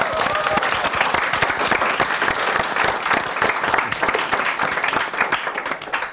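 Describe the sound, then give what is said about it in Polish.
Sustained applause from a live audience at the end of a live Klancyk show, dense overlapping clapping at a steady loud level for several seconds, with a faint murmur of voices mixed in. “Wielkie brawa!”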